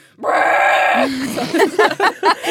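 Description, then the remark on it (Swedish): A person lets out a loud, drawn-out bellow lasting nearly a second, imitating a mooing cow, then goes straight into quick talking. “Så här råmande kor.”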